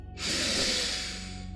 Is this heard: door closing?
no